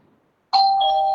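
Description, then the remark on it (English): A doorbell chimes once after a moment of quiet, a bright electronic tone with a clear pitch that rings on steadily and loudly to the end, with no voices over it. “if you uh, you can open the door if you want sorry yeah that's okay if they done for the second time we'll open no problem”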